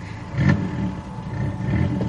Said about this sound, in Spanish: puso en marcha el coche.